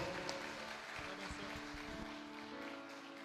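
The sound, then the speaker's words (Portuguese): An audience at a Portuguese-language church service applauds the Lord steadily, a dense wash of many hands clapping at once that fills the whole moment, with a sustained musical drone humming beneath the clapping. “Aplauda bem forte ao Senhor.”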